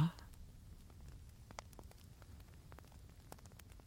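A wood fire crackles steadily, with irregular sharp pops and snaps scattered over a soft, low rumbling hiss, all at a gentle, quiet level.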